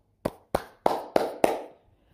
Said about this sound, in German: Und jetzt klar, natürlich, wenn ihr jetzt einen neuen 5G-Sock habt, ich, ich freue mich für euch. Applaus.